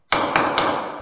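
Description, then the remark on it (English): A gavel bangs down three times in quick succession, sharp, loud wooden knocks about a quarter second apart, each followed by a ringing tail, with no voices present. “This is the sound of a gavel on that one. Here it comes.”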